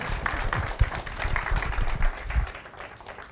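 A church audience breaks into a round of applause for a person for being willing to share, many hands clapping in a dense, steady patter that holds at moderate loudness for a few seconds.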